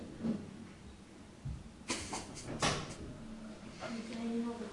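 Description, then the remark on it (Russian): A door is opened to let a cat through, with a couple of sharp clunks and a brief rattle, amid faint room noise and some indistinct voices in the background. “Ваня, открой дверь кошки, пожалуйста.”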